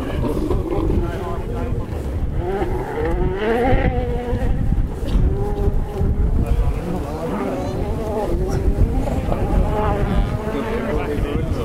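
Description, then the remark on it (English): A rally car engine revs and roars in rising and falling waves as the car speeds past and fades away into a forest, heard from a large natural amphitheatre at a rally stage, with people talking faintly in the background. “It's great that we've got such a huge sort of natural amphitheatre in front of us because you're still listening to the car going through in your left ear, vanishing into the forest”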